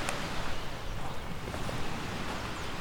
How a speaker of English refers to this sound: early morning, and uh, as you can hear, I'm along the shoreline,